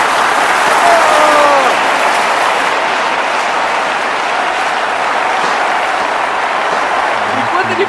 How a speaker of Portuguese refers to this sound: fala isso, o Gorbachev, que é um, levanta, começa a aplaudir.